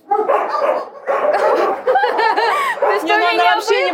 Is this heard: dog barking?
yes